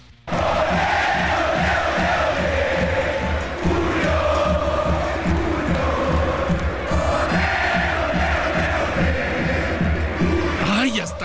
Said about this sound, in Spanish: Julio González, portero de Pumas, y de hecho vamos a escuchar eh, estamos platicando, pues como la gente, obviamente todos los aficionados de Ciudad Universitaria, pues gritando. Escuchemos tantito con el tema con cómo festejaron a Julio González.